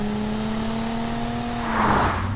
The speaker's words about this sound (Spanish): Está acelerando, písale. Pues no mames. Ni agarra potencia ese pinche carro. ¡Acelera, carajo, ¡Acelera la puta madre.